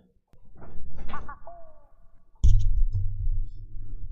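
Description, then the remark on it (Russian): After a few moments of voices, a door shuts with a sudden, solid thud, followed by a low, steady rumble that continues to the end. “Дверь закрой с той стороны.”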